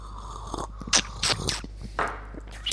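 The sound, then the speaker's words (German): Noisy slurping of machine-made coffee in several short airy bursts, people sipping one after another, with brief quiet gaps between and no talking. “Ich glaube, das ist auch extra lecker, sich das anzuhören, wie wir schlürfen.”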